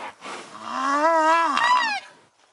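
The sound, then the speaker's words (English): A Sumatran rhino gives a single drawn-out, wavering, high-pitched squeal, loud, with a brief breathy burst of air out through the nostrils partway through before the call cuts off. “They do this high pitched squeak and then a, a, burst of air out through the nostrils.”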